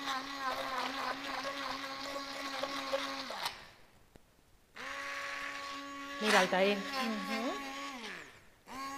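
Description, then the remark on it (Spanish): An electric blender whirs loudly as it blends tomatoes into a paste. It stops once, starts again, and its pitch dips and wavers under the load, while someone speaks briefly over the motor. “Es que es una batidora un poquito...”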